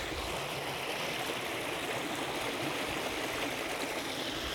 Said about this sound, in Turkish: Çok mu yakın oldu sesler? Yakın olabilir çünkü derenin dibindeyim abi. Berrak, şeffaf. Paydan bir su. Akıntısının tam dibindeyim. Elimi uzatsam suya değecek.